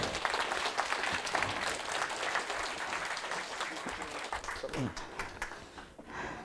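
An audience applauds steadily to welcome guests, dense clapping sustained for several seconds before thinning slightly toward the end, with a faint voice briefly audible underneath.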